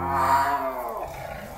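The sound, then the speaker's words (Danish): A lion lets out one deep, rumbling roar, loud, with a strong throaty tone that swells briefly and then trails off into a lower growl, in the lion house at Repark. No one speaks. “jeg er gået i vores øh, løvetierstald.”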